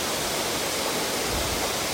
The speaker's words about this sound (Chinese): 下坠的时候，会有一部分打在石块上、岩壁上，然后再从岩壁上再溅出来。哦，这样形容你们大概会感觉到这个它的呃瀑布落下会有经过岩壁，然后产生出不同层次的水花。